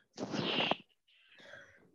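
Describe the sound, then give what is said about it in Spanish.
Two harsh coughing bursts from two women, with no talking: the first loud and forceful, the second softer, drawn out and raspy, trailing off after a short pause. “La cosa es que estamos tosiendo mucho las dos, me parece.”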